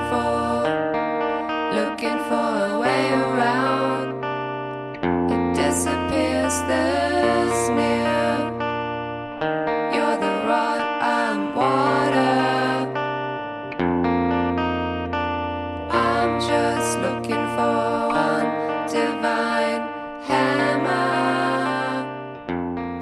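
A short burst of loud rock music with distorted electric guitars, steady bass and driving drums, dense and continuous with repeating chord sections and a brief dip in energy around the changes.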